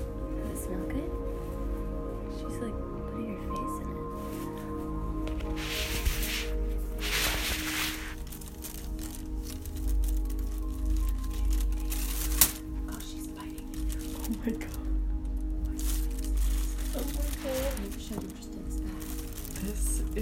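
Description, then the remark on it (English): A female dog scratches at a crinkly bag, producing intermittent bursts of rustling and crackling, moderately loud, with a sharp snap partway through over a steady low hum. “She's oh, she's really going for it. She really likes this bag.”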